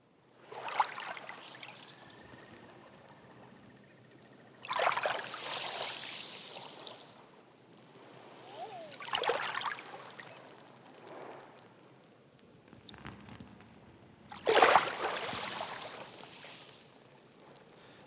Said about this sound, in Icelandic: með því að heyra sjóin klappa steinunum á geldingarnesi.